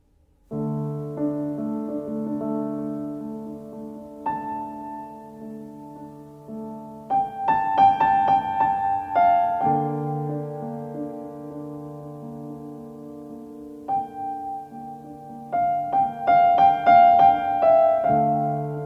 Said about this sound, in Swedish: i det allra första programmet så inleds det premiärprogrammet med en alldeles speciell musik